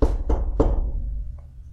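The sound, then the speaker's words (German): Three firm knocks on a wooden door at a cinema daycare, evenly spaced, each with a low thud that rings out briefly before fading into quiet. “Die drei sitzen hier wieder beim Nachsitzen und ich klopfe einfach mal an und schau, was passiert.”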